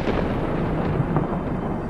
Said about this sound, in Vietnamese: Trời nổ sấm khan Mây đen kéo đến mù mịt Gió bắt đầu thổi mạnh